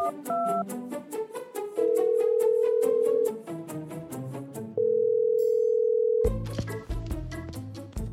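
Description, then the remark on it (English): A phone's ringing tone plays twice, each a steady mid-pitched buzz lasting about a second and a half with a pause between, over rhythmic background music that ends in a louder burst. “give him a ring and see if he's the answer”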